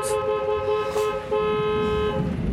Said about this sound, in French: On est de nuit, Raphaël est réveillé par des coups de klaxon incessants.